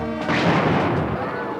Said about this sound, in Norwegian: Så ble det kasta dynamitt.